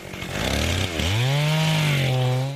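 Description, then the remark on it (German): A chainsaw roars continuously, its engine pitch dipping briefly then revving back up as it bites into wood, as five workers saw down Christmas trees on a plot near a Christmas tree farm's depot. Loud and steady with no voices. “Auf einer Fläche in der Nähe des Betriebshofes sägen fünf von Hennekes Arbeitern Bäume”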